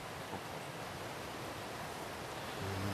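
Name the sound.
river water flowing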